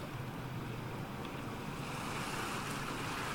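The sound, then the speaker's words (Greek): Small, gentle sea waves wash steadily against a sandy shore in a continuous, soft hiss, with a faint breezy rush over the top and no voices. “Και καθώς βρίσκομαι σε αυτό τον τόπο, σε αυτό το σημείο, χαλαρώνω όλο και περισσότερο, κοιτάζοντας τη θάλασσα, τον ορίζοντα, τα μικρά κύματα.”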